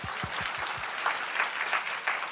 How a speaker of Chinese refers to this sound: 跟旁边说啊，拍手把荣耀归给主，好不好？